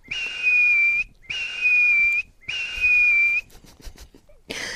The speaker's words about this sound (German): Ich bin, am, ich bin sehr großer Fan von dem Pfiff ich habe da nichts dran gemacht. Ja, die, du hast ihn hintereinander gemacht. Ich habe hintereinander gemacht, das stimmt.